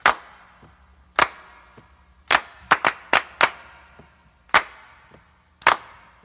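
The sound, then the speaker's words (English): Loud, crisp hand claps from a song recording ring out in a syncopated pattern, single claps spaced apart and then a quick burst of several, over a faint low hum with no voices. “and also, those hand claps are super famous.”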